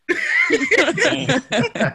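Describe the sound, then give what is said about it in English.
A person lets out a quick run of rough, voiced coughs, loud, in four or five irregular bursts, sounding like a playful imitation of coughing rather than a real fit. “You get cough.”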